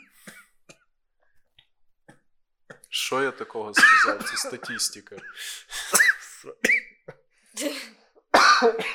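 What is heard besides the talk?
coughing fit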